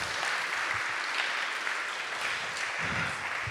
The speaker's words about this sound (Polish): czyli są z nami osoby tłumaczące na e, polski język migowy e, i one wykonają dzisiaj tutaj naprawdę ogromną robotę, za którą bardzo dużo brawa proszę.